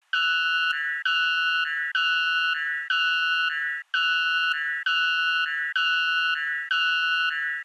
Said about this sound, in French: Et ça vous dit, on réécoute encore l'alarme le, Pew C'est parti